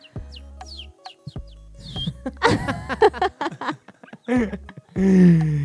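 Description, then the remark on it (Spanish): A person imitates a canary's song with a lively run of quick chirps, whistled trills and warbling sweeps, closing on a longer, louder sustained warble. “Bien, bien, aquí estamos, haciendo el pajarito, haciendo el canario.”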